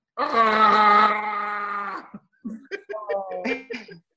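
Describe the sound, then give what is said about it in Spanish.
A person vocally imitates a creature's roar, likened to Chewbacca: a long, loud, strained howling growl lasting nearly two seconds, followed by a few shorter guttural yowls and grunts. “Cuando gritas a veces y de repente lo que tenemos audífonos y todo esto, parece que fuera Chubaca.”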